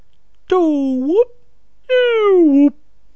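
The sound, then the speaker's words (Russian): Someone vocally imitates the cartoonish whistle sound effect heard when a car jumps in a Bond film: two sustained, sliding voiced tones, the first dipping then swooping upward, the second gliding steadily downward, loud with a short pause between. “И когда он прыгает, есть такой дебильный звук свистка.”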